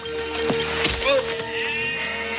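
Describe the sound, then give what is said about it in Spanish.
A flock of sheep drinking at a water trough in an oasis with palm trees bleat in quick, overlapping, wavering calls over a steady humming background with no talking. “El camello llega a un oasis donde hay palmeras y un pilón de agua donde está abrevando un rebaño de ovejas.”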